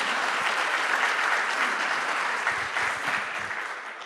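An audience applauds the Lord together, a dense, steady wash of many hands clapping that holds for about four seconds, with a few sharper individual claps standing out near the end as it begins to thin.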